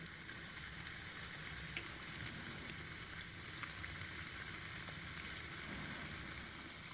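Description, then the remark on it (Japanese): Steady crackling fizz of carbonated soda poured over ice in a 7-Eleven iced-coffee ice pouch holding a single serving of syrup, a dense hiss of tiny popping bubbles with occasional sharper pops, continuous throughout, no voices. “これシュワーと音聞こえます”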